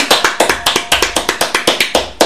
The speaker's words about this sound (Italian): Signori, io vi ringrazio, la storia è finita. Complimenti, bravissimi. Fatemi un applauso.